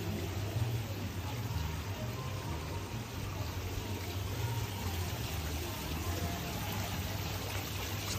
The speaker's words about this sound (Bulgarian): Много вярвам, че тази е вода, шума, звука на водата, много ще ти придаде едно приятно усещане за релаксираност, за спокойствие, усещането, че всичко е наред